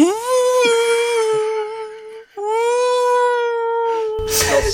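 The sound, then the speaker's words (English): A voice imitates a wailing theremin with a long, steady, eerie tone, breaks briefly, then resumes the sustained note before ending in a short burst of noise. “I think the theremin to denote when uh, a supernatural happening is happening is another point that is very jarring as well.”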